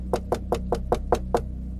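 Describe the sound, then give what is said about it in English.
A gentle knock on a door: seven quick, evenly spaced soft taps in a steady rhythm, over a faint low background hum with no voices. “As she was beginning to calm down, there was a gentle knock.”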